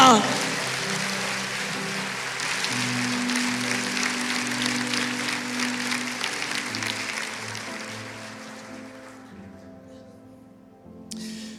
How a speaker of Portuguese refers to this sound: Aplauda Jesus, aleluia.